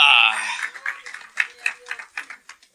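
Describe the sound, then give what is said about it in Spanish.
A crowd claps together in praise of the Lord in a loose, steady rhythm after a brief burst of loud voices, the palm claps mixing with murmured talk. “ah, el Señor merece un aplauso, hermano. Dele palmas al rey.”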